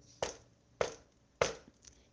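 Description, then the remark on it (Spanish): Three sharp knocks on a wooden door at midnight, Rabbit knocking at Aunt Owl's house in a fable, evenly spaced about half a second apart, each a crisp percussive thud with a brief ring, followed by quiet. “Golpeó tres veces la puerta según lo convenido.”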